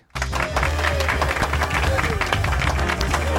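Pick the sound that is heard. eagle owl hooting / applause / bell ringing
applause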